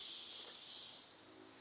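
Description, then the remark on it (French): Cicadas buzz loudly in a jungle in a dense, continuous high-pitched drone that holds steady, then eases slightly in volume near the end. No one speaks. “Et encore, ça n'a rien à voir avec les cigales d'Asie.”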